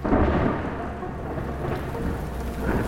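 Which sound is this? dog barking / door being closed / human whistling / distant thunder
distant thunder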